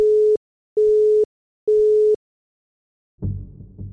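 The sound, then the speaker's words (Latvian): A telephone busy signal sounds three times, a steady electronic tone pulsing on and off at an even pace, as a repeated call to immunologist Jevģīnis Nikiforenko goes unanswered, before the line cuts to a brief burst of muffled noise at the end. “Aicinu vēlreiz, zvanu bet Nikiforenko vairs neatbild.”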